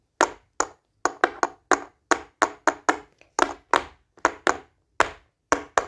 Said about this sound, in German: Ich nehme hier kurz mal den anderen. Dann könnt ihr sehen, wie ich den Takt klopfe.